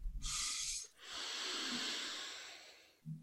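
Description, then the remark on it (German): A loud breathing sequence: a short sharp intake, a brief pause, then one long, steady, airy inhalation lasting about two seconds, with no talking. It is a test breath taken sitting upright, breathing into belly, chest and head in the manner Wim Hof uses. “Und du kannst für den Test kannst du einmal atmen, ähm, so ähnlich wie Wim Hof das macht.”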